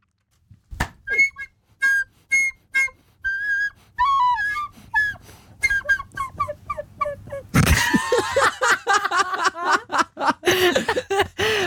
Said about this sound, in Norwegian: Eh, nå har jeg testet fløyte, didgeridoo og lekesaksofon. Ja. Så vi kan høre på fløyta.